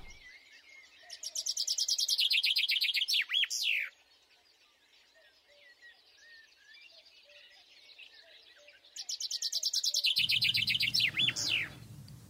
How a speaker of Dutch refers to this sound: Um, nou ja, uh, weet dat als je de Vink hoort zingen, dat er echt alweer de volgende stap is gezet richting de lente.